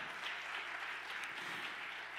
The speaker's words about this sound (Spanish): Dele otro aplauso fuerte.